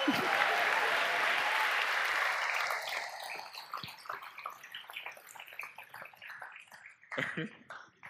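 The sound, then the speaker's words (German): A crowd applauds a performer playing Herod Archelaus as he leaves the stage, in a dense, steady burst of clapping that thins out after about three seconds into scattered, uneven claps, with a brief louder flurry near the end. “Vielen Dank, einmal Applaus für ihn.”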